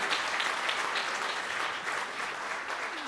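A sustained burst of applause from many hands, dense and even in loudness throughout, a steady crackling wash of clapping with no voices standing out.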